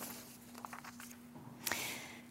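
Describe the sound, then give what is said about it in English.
Quiet rustling and light crinkling of paper pages being pulled apart by a speaker about to read a gospel lesson, with a few soft taps followed by a sharper, brighter crackle near the end, fairly faint. “Tonight, we heard, if I can separate my paper.”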